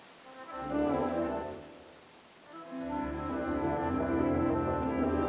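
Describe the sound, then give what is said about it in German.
Steady rain pours down in a dense, continuous wash, easing briefly before swelling back to a full, enveloping downpour, with a low rumbling undertone and no voices. “Doch diese richteten weiterhin ihre blühende rosige Schönheit auf in dem plötzlich eiskalten Wind und unter dem niedergehenden Regen.”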